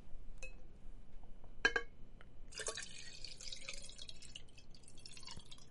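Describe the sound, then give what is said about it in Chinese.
Water is poured into a cup: a couple of light clinks first, then a steady, bright splashing rush that runs for about three seconds before tapering off. It stays fairly quiet, with no voices. “来倒个水，倒水先嘛。”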